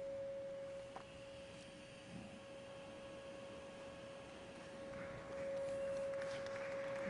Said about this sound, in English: So, Let's fire it up and see what it does. So let's play a 550 hertz frequency and watch what happens.